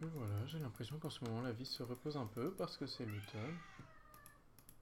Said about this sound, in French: Un petit chat qui fait miaou, ce qui est normal, il me semble que c'est un chat.